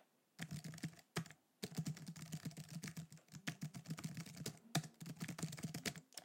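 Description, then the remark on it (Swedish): Rapid, continuous typing on a computer keyboard, dense clicking keystrokes with a few brief pauses, no voices present. “Ja, och förut, nu har jag inte det tangentbordet. Jo, det har jag visst. Jag ska hämta det.”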